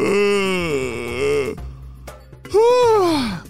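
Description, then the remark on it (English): A storyteller's voice imitates the long, drawn-out yawn of Chloe, an animal character in a children's mystery story, waking from a dream: a sustained wavering moan, then after a short pause a second yawning sound that rises and sighs downward. Fairly loud, with no other talk. “Chloe yawned”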